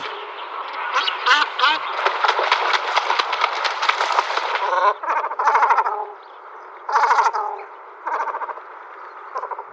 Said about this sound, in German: Aber egal wie, also der Komoran hat es geschafft, als Vogel des Jahres 2010 zu prämiert zu werden. Ja, der klingt so.